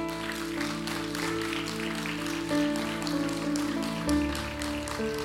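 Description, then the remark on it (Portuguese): An audience gives a strong round of applause to the Lord, a dense, even patter of many hands clapping over sustained keyboard or organ chords that hold underneath throughout. “Será que você pode dar um forte aplauso ao Senhor?”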